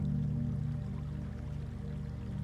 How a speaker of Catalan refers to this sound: L'escoltes abans que el veus. T'arriba el so de l'aigua. Veus en atensar-te el curs del rierol, l'aigua transparent que flueix entre pedres i branques caigudes.